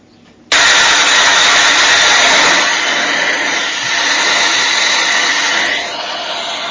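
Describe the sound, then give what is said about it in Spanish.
A Mirage fighter jet engine roars in abruptly as the combat aircraft flies, holding a loud, steady, hissing whine, easing slightly toward the end with no voices present. “Este es el maravilloso sonido, después hago un comentario, este es el maravilloso sonido de nuestros aviones de combate, a los que tanto extrañamos y a los que participaron en esa guerra, nuestros queridos aviones Mirage, volando en los cielos”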